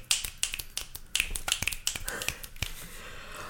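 A rapid series of crisp finger snaps, about a dozen sharp clicks in an uneven rhythm over a few seconds, with no talking.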